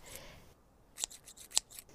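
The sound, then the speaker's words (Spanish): Scissors snip repeatedly through a girl's hair, a series of sharp metallic clicks with two louder closes, with no voices. “Las hojas de las tijeras se abrieron y cerraron una y otra vez, y mientras caía el piso más y más del hermoso cabello de Gina.”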